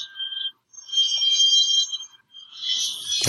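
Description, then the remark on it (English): An alarm ringing with high-pitched electronic tones in repeated, warbling bursts separated by short gaps, clear, with no talking, ending in a brief click. “that's my alarm.”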